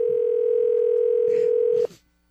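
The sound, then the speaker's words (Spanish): A steady, loud telephone ringing tone holds one unbroken pitch for nearly two seconds, then abruptly cuts off, with faint rustling and clicks in the background. “Cuando escuche el tono.”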